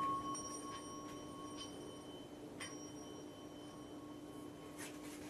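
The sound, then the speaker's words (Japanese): A Buddhist orin singing bowl, played by two elementary schoolchildren, rings with a steady, shimmering tone, its high overtones lingering throughout while a few soft taps add fresh strikes; quiet, with no voices. “小学生ふたりとねいろ演奏（２）おりん”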